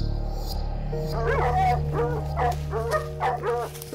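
Cadaver dogs bark, yip and whimper in quick, overlapping bursts, fairly loud, with a steady low hum running underneath throughout.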